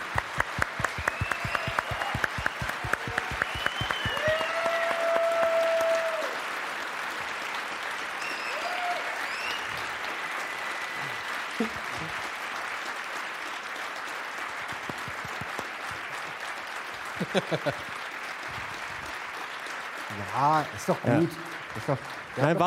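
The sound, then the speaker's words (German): A live audience in Essen claps steadily for over twenty seconds, a dense, even wash of applause with a few whistles and cheers mixed in, and brief voices surfacing near the end. “Du kannst es doch zehn Minuten Applaus Und natürlich, ich kann es ja auch loopen, da hast du absolut recht.”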